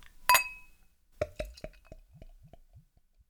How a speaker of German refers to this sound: Und ich würde sagen, ich will euch nicht zu lang auf die Folter spannen und ich mache einmal das Flaschel auf.